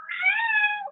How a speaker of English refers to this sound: I'm sorry about my cat. She's really chatty.